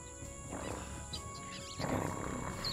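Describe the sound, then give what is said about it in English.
A lioness in the trees lets out a low, rumbling roar, swelling in two broad surges over a few seconds, with a steady background hum and no talking. “Um, does anyone else seem to notice this lion in the trees?”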